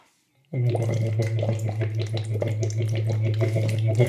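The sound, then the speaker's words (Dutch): A voice hums through a thin straw, about one centimeter in diameter, into water, making a steady, rapid bubbling with a sustained low buzzing tone underneath, starting abruptly after a brief silence and continuing loud. “Wat je hoort in de klank is dat die van mij die iets dunner is, maakt meer bubbels per seconde.”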